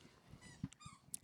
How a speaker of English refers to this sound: Um, you can hear the dogs fighting in the background. Uh, not fighting, okay, but you know fine. how siblings be. Yeah, that's, that's uh, they're play fighting yeah. like dogs.